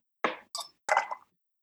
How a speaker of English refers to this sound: So now you're gonna put add your ice to your tin right.